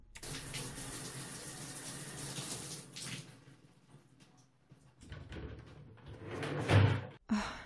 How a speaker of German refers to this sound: es geht doch nichts über eine entspannende Dusche nach dem Sport.